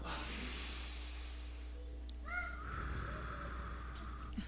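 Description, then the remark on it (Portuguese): A long, deep breath drawn in through the nose, airy, with a faint whistling edge near the end and no talking. “E uma boa respiração se dá.”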